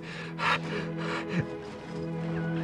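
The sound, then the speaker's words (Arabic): Harsh scraping of a stone against a wooden door as someone digs under the door with it, in a few rough strokes, with a loud rasping burst near the start and a low steady hum running underneath throughout. “هاني لقيت حجرة خير من بلاش تو نحفروا بها تحت الباب”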